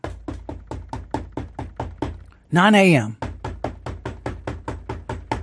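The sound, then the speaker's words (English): Rapid, steady knocking on a home's front door at 9 a.m., many sharp raps in quick succession, loud. The knocking pauses briefly while a voice speaks, then resumes at the same pace. “That's what I hear. My front door.”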